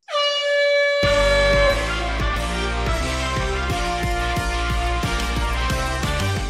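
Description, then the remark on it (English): A single loud, sustained air horn blast sounds for over a second, marking the start of a recurring segment, with upbeat music and a steady drum beat kicking in partway through and continuing afterward. Nobody speaks. “sound of the horn means it is time once again for another edition of Coach's Corner”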